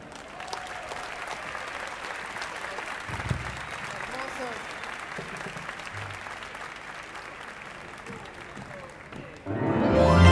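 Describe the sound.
Sustained audience applause, a dense steady clatter of many hands clapping, with a few scattered voices in the crowd, swelling louder near the end.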